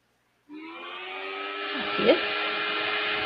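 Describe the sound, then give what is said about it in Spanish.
A loud electric fan whirs on abruptly and keeps running with a steady, droning motor hum and a faint high whine, holding constant to the end. “Y otro Perdón, es mi ventilador.”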